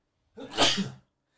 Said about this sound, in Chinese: 就是打个喷嚏，不好意思